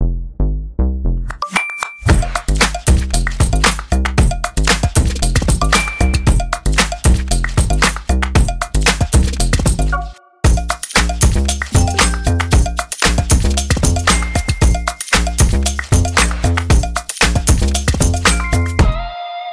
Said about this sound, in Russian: Сейчас заиграет ваш любимый джингл.